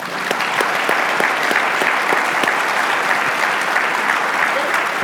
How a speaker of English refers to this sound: so, with that, could you give our panelists a round of applause?